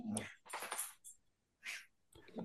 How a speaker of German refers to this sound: Nachdem du auch meinen Hund rausgeschnitten hast, der hier gerade Lärm macht, kommt bitte folgendes Segment.